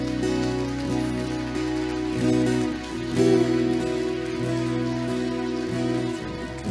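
An audience at a church service, standing, applauds God steadily, a dense, sustained clatter of many hands over a held, droning musical chord that continues underneath throughout.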